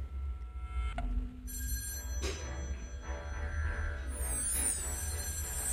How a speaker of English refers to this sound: It was 1974. I was uh, watching television and the phone rang.